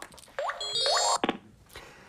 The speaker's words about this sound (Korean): 그때 갑자기 제 핸드폰이 울렸죠.